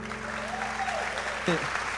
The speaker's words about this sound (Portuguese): Se você foi abençoado, aplauda mais forte.